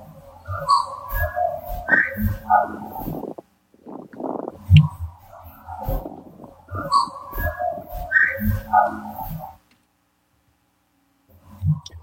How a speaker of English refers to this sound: you have a whistle, you have a, a knock ish sounding vocal and speech.